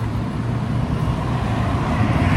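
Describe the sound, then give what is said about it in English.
Steady road traffic of cars queuing down the road to get into a cinema, a continuous low drone of car engines idling and creeping along, with no voices and no distinct passing vehicles standing out. “See those cars behind me. That's free flowing normally.”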